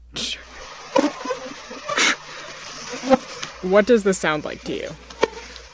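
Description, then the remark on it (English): A thin, whining insect buzz from a swarm of mosquitoes so dense they coat the wall of a shed, with bursts of rustling footsteps as someone walks through it. A person briefly speaks partway through. “So it's the sound of someone walking through a swarm of mosquitoes.”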